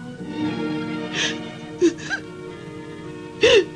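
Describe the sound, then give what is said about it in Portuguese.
In her bedroom, a woman overcome by sadness sobs deeply, with shaky gasping breaths and strained, catching cries coming in uneven bursts over a few seconds. “Lívia não consegue suportar a tristeza e desaba em choro profundo”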